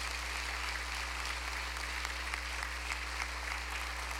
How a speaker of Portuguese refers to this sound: Então, queria agradecer muito o trabalho de vocês e queria homenageá-los com uma salva de palmas da nossa igreja.